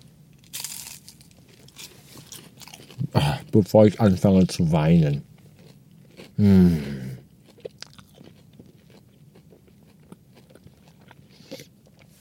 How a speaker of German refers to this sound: Trotzdem esse ich erstmal jetzt meine 20 Chicken Nuggets. Jedenfalls habe ich vor, 20 Chicken Nuggets zu essen. Mal gucken, wie viele ich wirklich schaffe.